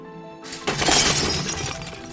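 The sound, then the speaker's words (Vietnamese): A loud crash as a crate of beer bottles, pushed on a bicycle, falls onto the road and smashes, a burst of shattering that rattles and tinkles on for over a second before tapering off, with no voices. “Một người đàn ông đang ngốc ngắc đẩy chiếc thùng đựng bia bằng xe đạp, nhưng người đi phía trước đột ngột lùi lại khiến anh ta tuột tay lái, làm đổ hết thùng bia xuống mặt đường.”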